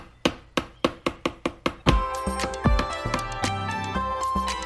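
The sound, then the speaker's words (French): A quick series of about eight sharp, evenly spaced hammer blows driving nails into wooden planks to build a cabin, then giving way to a bright, busy musical passage. “Il court chercher des planches, un marteau et des clous. Et là, au cœur du Grand Chêne, il construit une cabane toute jolie pour lui et tous ses amis de la forêt.”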